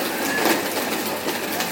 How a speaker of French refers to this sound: comme ce bruit de mixeur. oh là là, ils vont bientôt passer l'aspirateur en plus. C'est pas grave, il a bientôt fini le, cocktail.